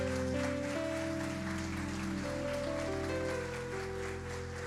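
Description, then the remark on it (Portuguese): A church audience applauds steadily with joy during a sermon, a dense patter of clapping, with sustained keyboard chords playing underneath throughout. “Quantos pode aplaudir? Faça com alegria.”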